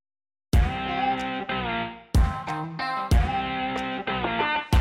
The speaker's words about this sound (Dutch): kwamen er een aantal bedrijfsnamen langs vliegen omdat we het niet netjes vinden om deze bedrijfsnamen publiekelijk in onze podcast te benoemen, heb ik deze bedrijfsnamen vervangen door dit geluid.